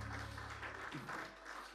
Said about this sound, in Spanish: Ese aplauso para el Señor.